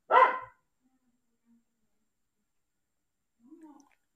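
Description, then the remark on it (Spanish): A small female dog lets out one sharp, loud bark because someone is at the door, followed by a few seconds of near silence and then a brief, low, muffled vocal sound near the end. “Este es Momo, mi perrita.”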